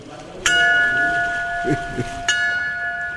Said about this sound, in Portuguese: Quando estava no voeiro, eh, normalmente estava a chamar os botes, os sinos, tinham os sinos a tocar e a sirene. Já viste uma, uma sirene como essas que usam os, os bombeiros.